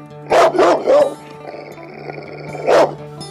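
dog barking

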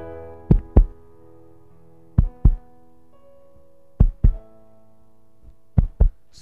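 heartbeat

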